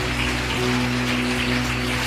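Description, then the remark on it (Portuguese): A crowd claps for Jesus as people come to the front, a dense, even patter of many hands with no pauses, over a low constant hum and no voices. “Aplauda Jesus, olha, vem vindo bastante gente.”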